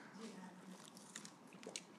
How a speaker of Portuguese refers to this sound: Ela me trouxe aqui um pouco de água. Eu vou beber.